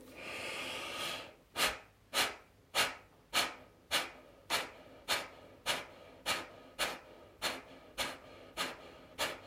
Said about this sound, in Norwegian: Klar for tredje og siste runde av Kapalbati pranayama. Pust inn